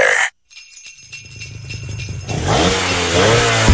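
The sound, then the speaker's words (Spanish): After a brief burst and a pause, an engine idles low and then revs hard, its pitch climbing and roaring loud by the end, with no one talking. “Enciende los motores porque esta Navidad te vas a montar”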